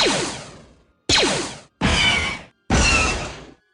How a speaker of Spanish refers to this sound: Por ejemplo, para hacer los lásers de los blasters, de los disparos,